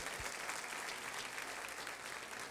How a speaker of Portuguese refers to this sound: Eu acho que as mulheres são mais generosas. É isso, mulheres? É isso. Vocês são mais generosas. Vamos aplaudir as mulheres. Muito generosas.